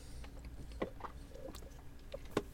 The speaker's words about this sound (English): I just saw you heard me slurp, sorry.